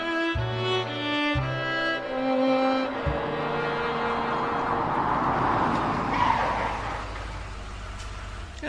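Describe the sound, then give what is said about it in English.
A car engine revs loudly and climbs through the gears, pitch rising sharply as it speeds off, then settles into a steady roaring drive with a screeching, hissing edge like tyres skidding. “You got us here quicker than the bus.”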